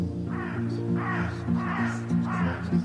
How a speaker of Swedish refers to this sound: Kråkorna, ja.